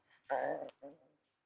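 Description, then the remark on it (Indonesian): A hungry person's stomach growls in two short, tonal gurgling bursts, the first longer and louder, the second fainter, against an otherwise quiet background. “Perut gue.”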